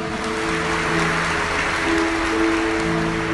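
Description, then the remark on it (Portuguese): A crowd applauds mothers who have seven or more children, a dense, continuous patter of many hands clapping at an even loudness for a few seconds, with a faint low hum underneath and no voices. “Vamos dar uma salva de palmas para essas mães?”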